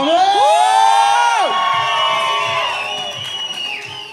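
An audience at an Expedientes Secretos event cheers loudly for a guest judge with high, rising whoops and yells, the excited shouting gradually easing off while scattered clapping continues underneath.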